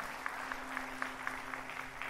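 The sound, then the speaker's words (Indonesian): A church audience claps together in a steady, even rhythm, a wash of many hands with regular beats about four per second, with no voices over it. “Come on, berikan tepuk tangan.”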